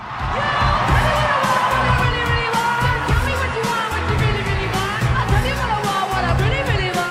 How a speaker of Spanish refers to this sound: público enloqueció y comenzó a corear una de las canciones más emblemáticas de la historia del pop.